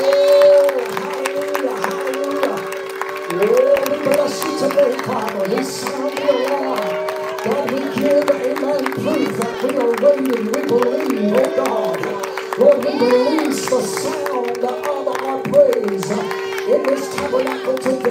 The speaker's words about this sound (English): Come on, let's lift it up. Let's make a clap. Come on, let's get a real crowd in this house together.